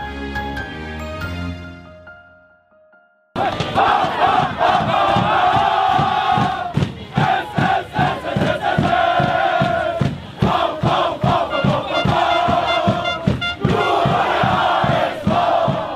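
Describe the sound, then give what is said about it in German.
After a brief fading musical tone, a large crowd of Heider SV football fans and players erupts into loud celebration of promotion to the Regionalliga after a draw against Bremer SV, chanting and shouting in a steady rhythmic pulse with clapping, continuing energetically to the end. “die Spieler und Fans des Heider SV gab es in dieser Woche viel zu feiern.”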